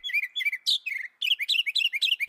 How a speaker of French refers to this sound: Les trois chercheurs ont donc conclu que les oiseaux moqueurs, tout comme les musiciens, utilisaient des techniques de répétition de sons selon des règles précises.